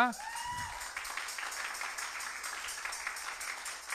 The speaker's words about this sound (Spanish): Aplauden a Cristo,